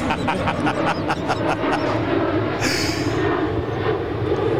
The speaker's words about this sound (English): Wonder where they're off to. Everyone has to drink when there's a plane.